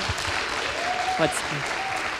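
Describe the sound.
Steady audience applause, a dense continuous patter of many hands clapping at even loudness, with a faint whistle or voice rising briefly through the middle.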